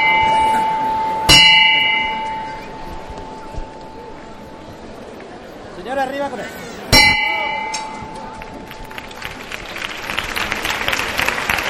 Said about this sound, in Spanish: Vaya decibelios que tiene la campana de, este trono.